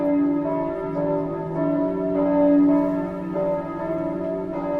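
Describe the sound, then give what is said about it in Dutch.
Church bells ring steadily, their overlapping tones swelling and sustaining in a continuous wash of ringing, moderately loud with no voices present. “Ze was net bij de beurskoersen aangekomen toen ze uit het niets klokken hoorde luiden.”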